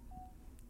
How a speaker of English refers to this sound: did not silence his phone